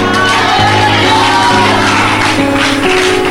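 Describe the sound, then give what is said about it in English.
An audience erupts in a loud, sustained shout to the Lord during a sermon, many voices yelling and whooping together at full volume with sustained tones from an organ or keyboard underneath. “Why don't you give the Lord a powerful shout?”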